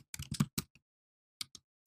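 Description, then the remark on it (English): Quick bursts of typing on a computer keyboard on a mobile setup, a cluster of clicks, a brief pause, then a few more scattered keystrokes, fairly crisp with no talking. “And sorry about all the typing. You're going to hear that on this this mobile setup that I have.”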